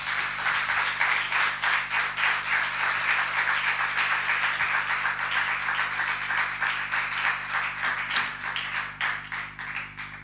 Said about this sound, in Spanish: Venga, pues con este aplauso vamos a empezar a escuchar.